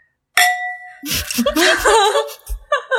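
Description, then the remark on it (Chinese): Red wine glasses filled with beer clink once in a toast, a bright chime that rings clearly for a moment before fading. Laughter and lively chatter follow right after. “可以隔空干杯啦。 来干个杯，干个杯。”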